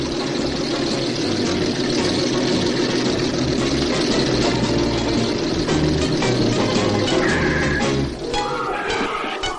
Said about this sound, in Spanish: Los dos vehículos pasan por la puerta del restaurante y se detienen algo más adelante.